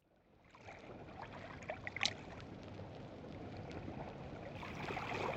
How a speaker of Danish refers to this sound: Hør vandet.